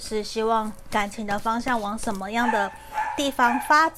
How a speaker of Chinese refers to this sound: 不好意思，我们刚刚家里狗狗有叫，所以我停下来。